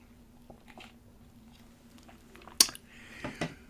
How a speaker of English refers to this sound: And now, what I'm going to do is ask you to find a relaxing comfortable seated position while I take some much needed water.